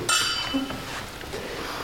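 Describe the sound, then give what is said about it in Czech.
A bright, ringing clink of glasses of Moravian orange wine touching in a toast near the start, its high shimmer lingering briefly over a soft background with faint murmuring. “Ale na to se napijeme a budeme pokračovat dále.”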